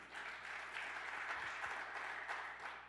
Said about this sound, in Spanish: ¿Cuántos están le dando un aplauso fuerte?